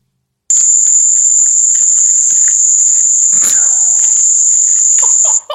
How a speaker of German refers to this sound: Es ist einfach wie so ein Tinnitus. Milliarden Zikaden. Ja, es ist wahnsinnig schlimm.